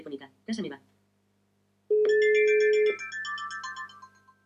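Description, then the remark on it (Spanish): A brief burst of speech, then a steady electronic tone sounds for about a second, followed by a cluster of bright, stepping tones as a cordless phone places a call after the 5 key is pressed, clear. “ya se oyen los tonos.”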